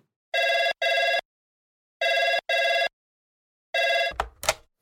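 A telephone rings loudly at half past two in the morning, the night before Christmas Eve, in a double-burst pattern: two paired rings followed by a third that is cut short by a clunk and rattle, as if the receiver is picked up.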